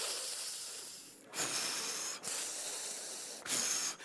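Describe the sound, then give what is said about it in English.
A voice imitates slow, heavy breathing through the nose, alternating long hissing inhales and exhales, about four steady airy breaths in a row with no talking, mimicking breathing gas through a nosepiece while lying back in a chair. “So they put me in the chair, and I lay back, and, and they put the thing, you know, the gas on my nose, and she says, put your finger on that and hold it right there.”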